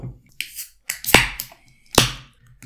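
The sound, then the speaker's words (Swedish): Two cans of Sankt Erik golden IPA beer are cracked open one after the other: each sharp metallic pop is followed by a short, breathy fizz, with softer rustles and hisses in between. No talking. “Vi börjar med att öppna varsin eh, gyllene IPA.”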